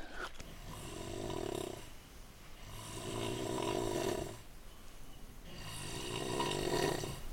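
Loud snoring of people sleeping in a hikers' gîte: three long, rasping snores in a slow, steady rhythm, each a drawn-out rumbling breath with brief quieter pauses between. No one speaks.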